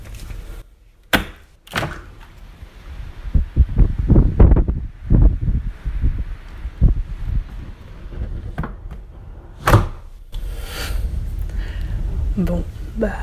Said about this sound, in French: Ah, la nature n'a pas l'air heureuse. Hein. L'orage crie sa rage. en tout cas, c'est l'impression que ça me donne. Quand on voit euh, les orages à Paris, euh, la pluie qui tombe.